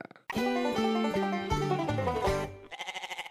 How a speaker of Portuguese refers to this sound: Solta lá vinhetita.